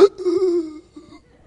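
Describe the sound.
A man's voice imitates a startled gasping wake-up from sleep apnea: a sharp intake followed by a strained, drawn-out groaning breath, then a second shorter gasp, fairly loud.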